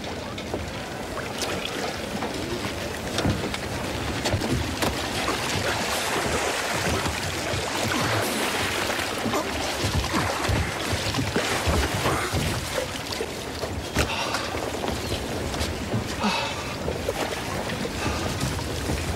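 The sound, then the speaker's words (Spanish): A small rowing boat moves through water as people set out to go fishing, with steady splashing and sloshing, continuous and fairly loud, with occasional sharper plunges as oars dip in. “No puedes subirte a mi barca.”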